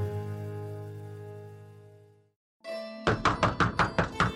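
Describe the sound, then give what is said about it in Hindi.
A quick run of about seven sharp, evenly spaced knocks on a door as a woman knocks at her sister-in-law's door, loud and crisp, following a sustained tonal hum that fades out into a brief silence. “भाभी ओ भाभी बाहर तो आइए दिखाइए तो जरा कैसी रची मेहंदी आपकी दरवाजे पर नॉक करती … अपनी लाडली भाभी को आवाज लगाती है”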